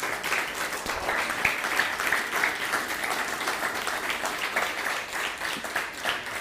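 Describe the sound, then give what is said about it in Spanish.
Sustained applause from an audience, given in praise of God ('Baruch Hashem') at the end of a religious teaching: a dense wash of many hands clapping at a steady level for several seconds with no voices standing out. “Si puedes dar un fuerte aplauso al bendito sea, Baruch Hashem.”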